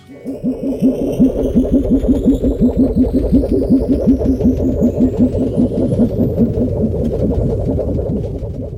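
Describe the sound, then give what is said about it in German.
A synthesized spaceship engine, its base sound made from a plastic disc and a Lego plate with a thick sub-bass added and synths for an alien tone, throbs in a steady, rapid pulsing rhythm over a deep rumbling bass, while thin high-pitched tones slowly glide upward above it. Loud and continuous, with no voices. “Unser Grundsound wurde also alleine von einer Plastikscheibe und einer Lego-Platte erzeugt.”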